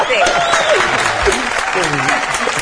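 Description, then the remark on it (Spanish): Steady hand clapping applause fills the whole stretch, a dense, continuous patter of many claps, while voices talk and call out over it. “Yo voy a seguir aplaudiendo de aquí a las 12.57.”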